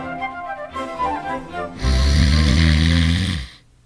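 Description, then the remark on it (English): A man's loud, rasping snore in a hospital room: a rattly, harmonic intake followed by a long, roaring blast that cuts off abruptly, with no talking. “John Bickerson had finally consented to allow Dr. Hershey to relieve his condition”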